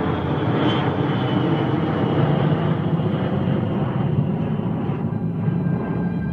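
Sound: jet airliner engines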